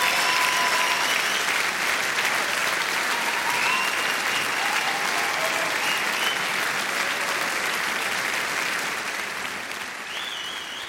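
Sustained audience applause at the end of Maxi Schafroth's Fastenpredigt (Lenten sermon) to politicians, a dense steady wash of many hands clapping at once, loud throughout and tapering slightly toward the end, with faint whistles or voices threaded through it.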